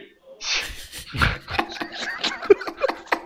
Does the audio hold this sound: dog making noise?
yes